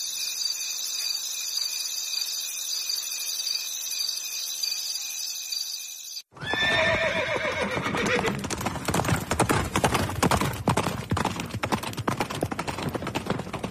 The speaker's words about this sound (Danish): Det er så nederen, når Swift ikke har bundet hestene, og så drøner de Turpin bare forbi.